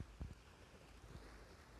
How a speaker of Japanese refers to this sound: 聞こえますでしょうか波の音ちょっと静かにしてみますねとっても久しぶりに海岸に来ています